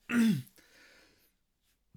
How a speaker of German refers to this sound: So, jetzt muss ich noch einmal kurz aufstoßen.